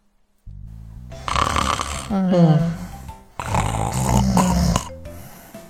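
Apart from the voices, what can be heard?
snoring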